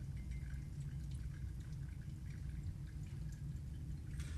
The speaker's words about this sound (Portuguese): Se você joga muito alto, a água passa muito rápido. E aí não vai dar sabor no seu café. Ah, tá certo. Então a gente tem a chaleira bico de ganso e a gente faz movimentos circulares para gerar turbulência.